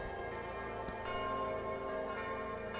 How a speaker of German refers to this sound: Es läuten die Glocken. Es, nee, das ist Tag 2. Ah, schön. Die Tage werden äh, mit Glockenspiel ange angezeigt.